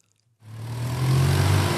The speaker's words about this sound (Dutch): Duizenden auto's die per uur gebruik maken van de Schravendijkwal in Rotterdam.